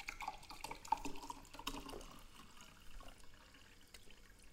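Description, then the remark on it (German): Someone takes a sip of water, with soft liquid sloshing and gulping sounds over about four seconds. There is no talking, just faint background noise. “Ich trinke jetzt auch mal einen Schluck Wasser.”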